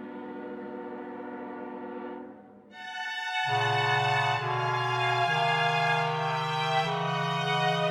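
A passenger train sounds loud, its sustained horn sliding through several shifting chords over a steady low rumble, with no voices present.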